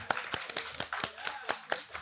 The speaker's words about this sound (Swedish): applåd för en Pride. En applåd för Pride.